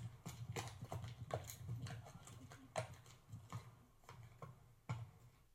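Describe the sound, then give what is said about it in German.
A horse walks at a steady pace, its hooves clip-clopping in a regular, unhurried rhythm on a hard surface, moderately loud, with no voices. “Gehendes Pferd.”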